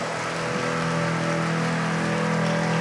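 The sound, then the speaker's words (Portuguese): A crowd applauds steadily, a dense unbroken wash of clapping that holds at the same loudness for about three seconds, with a faint sustained low tone beneath it and no talking. “Vamos oferecer a Deus um lindo aplauso.”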